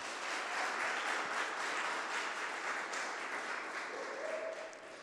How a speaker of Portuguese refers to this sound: Amém? Vamos aplaudir Jesus bem alto, gente?